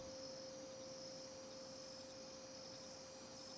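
A faint, steady chorus of crickets trilling continuously at night, resonating on the octave of C sharp, blended with a constant sustained tone underneath. No one speaks.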